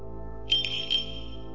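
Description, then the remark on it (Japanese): A small bell jingles with two light, bright shakes about half a second apart, heard at dusk near an empty house, ringing briefly before fading over a low, steady drone in the background. “鈴の音がします。”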